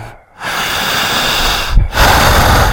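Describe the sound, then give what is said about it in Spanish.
Two long, deep breaths drawn in and let out, broad and airy, with a brief pause between them and no talking. “al ir respirando de esta forma, no me corte la respiración.”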